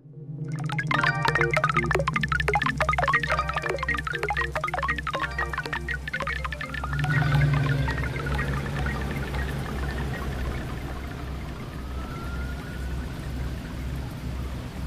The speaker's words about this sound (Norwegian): Det er eh, ganske regntung eh, trailer vi fikk eh, høre utdraget av her.